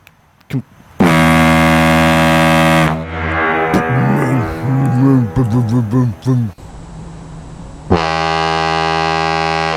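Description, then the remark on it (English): A large foghorn being tested in a garden blasts loudly and deeply twice, each a sustained harmonic drone lasting a couple of seconds, with a person talking excitedly in the gap between the blasts. “He's testing out a big foghorn in his garden.”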